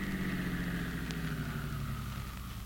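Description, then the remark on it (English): A car engine idles steadily with a low, even rumble and faint hum after the car has been stopped, continuous, with no voices. “Now stop your car.”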